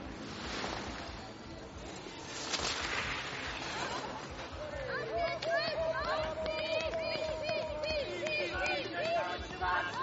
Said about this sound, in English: Applause also.